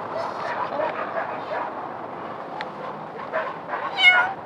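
A cat meows as it comes up to greet people, with a short, bright, rising meow near the end standing out over steady outdoor background noise. Softer mews may come just before it.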